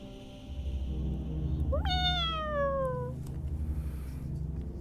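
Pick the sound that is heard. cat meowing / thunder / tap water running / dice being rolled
cat meowing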